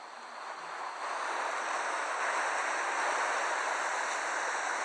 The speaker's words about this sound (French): Voilà soudain que l'eau revient à grosses vagues.